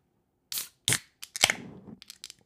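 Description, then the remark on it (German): Beer bottles are cracked open with a few sharp pops and hisses, followed by a short stretch of fizzing foam and faint crackles. No one speaks. “Das spritzt gleich. Junge, das fuckt so ab. Ja, okay, lass aufmachen, komm.”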